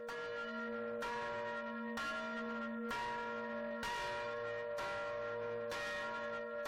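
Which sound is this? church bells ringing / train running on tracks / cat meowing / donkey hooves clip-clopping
church bells ringing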